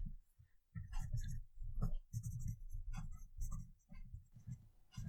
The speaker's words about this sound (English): Let me write this down.